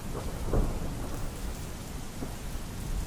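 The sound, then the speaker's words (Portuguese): Steady, dense rainfall pours down throughout, with low rumbles of thunder swelling near the start and again briefly later, no voices present. “nós vamos fazer o barulhinho da chuva.”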